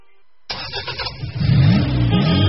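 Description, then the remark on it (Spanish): After a brief silence, a car engine abruptly roars to life and revs up, its low rumble climbing and growing louder and steadier, with no voices. “¡Hala! ¡Coche nuevo!”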